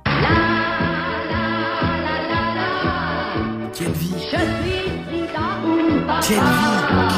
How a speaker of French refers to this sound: c'était une chanson qui avait cartonné à l'époque